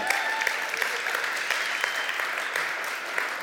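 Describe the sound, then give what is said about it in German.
A crowd applauds steadily for two pastors, many hands clapping in a dense, sustained wash with scattered sharper claps standing out, without any speech. “Vielleicht könnt ihr denen auch mal einen richtig dicken Applaus geben.”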